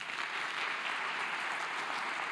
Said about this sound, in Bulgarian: Нека ръкопляскаме